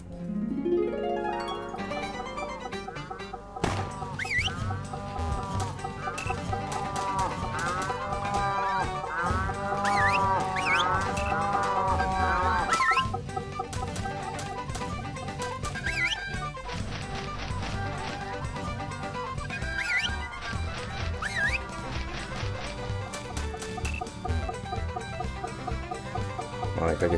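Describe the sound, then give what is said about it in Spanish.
Farmyard stable ambience filled with hens clucking over and over, busy and fairly loud throughout, with a dense, continuous bed of animal noise and no pauses. “Este es el establo.”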